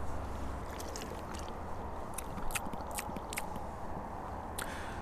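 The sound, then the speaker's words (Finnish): Sipping and slurping of spring water from a mug at the Pikkala spring, a few short wet mouth sounds in quick succession over a steady outdoor rumble of wind or running water. No one speaks. “Mä otin mukin mukaan ja maistellaan.”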